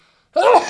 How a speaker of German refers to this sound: Gesundheit. Entschuldigung. Gesundheit.